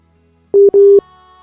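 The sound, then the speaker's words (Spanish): A telephone busy tone after a call drops: two steady, fairly loud electronic beeps at one pitch, a short beep then a longer one separated by a brief gap, with no voices and faint line hum afterward. “Bueno, ahora sí se cortó.”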